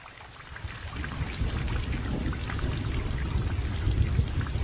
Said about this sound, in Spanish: El día amaneció con una fuerte y helada lluvia.